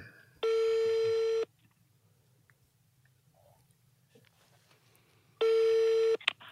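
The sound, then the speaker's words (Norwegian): An outgoing phone call's ringing tone while calling a random person: two steady one-second buzzing tones separated by a long silent pause, heard clearly and fairly loud over a faint background hum. “Så da skal jeg bare ringe til et eller annet eh, tilfeldig menneske.”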